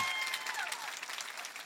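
An audience applauds steadily, a dense wash of many hands clapping at once, sustained and fairly close throughout with no voices rising above it.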